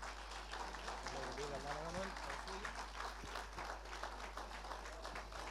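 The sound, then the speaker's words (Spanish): An audience at a church service applauds for the Lord steadily, a dense, continuous wash of many hands clapping at an even loudness from start to finish, with a voice briefly audible beneath it. “Fuerte aplauso para el Señor.”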